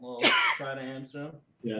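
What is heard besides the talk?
sneeze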